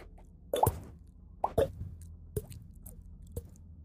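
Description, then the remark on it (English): A voice imitates water dripping from stalactites into a pool below with a series of about five wet mouth plops, spaced irregularly, the first two fuller and the later ones sharper and quieter. “Uh, water coming down from stalactites into a pool of water below.”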